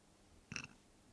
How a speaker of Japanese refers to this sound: いやだからゲップすんなお前ゲップすんな